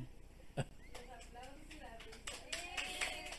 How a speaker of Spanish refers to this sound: Por primera vez tenemos público presente en el estudio, sala. A ver, saluden, saluden gente, aplaudan ahí.